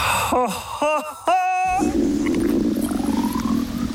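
A voice imitates a hungry stomach rumbling: three short, downward-sliding groaning tones, followed by a steady rough, low gurgling rumble that carries on to the end.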